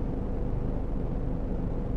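A steady, low rumble of road noise fills the car cabin while driving home from work, a constant muffled drone with no voices and no breaks over the couple of seconds.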